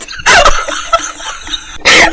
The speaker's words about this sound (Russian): Тихо, сейчас собака залает.